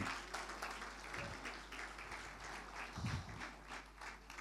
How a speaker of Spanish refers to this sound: Y amén, Señor. Fuerte ese aplauso de alabanza al Señor.